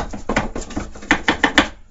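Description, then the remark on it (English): The bell on a cat's feather toy jingles in a quick, rhythmic series of about a dozen small clinking bursts, with the last four ringing brighter and more distinctly before it stops, as the cat Jasper shoves the toy under a door at 2 o'clock in the morning. “Unless you're Jasper and then you're trying to shove your feather toy with a bell under my door and is at 2 o'clock in the morning, so then all you hear is”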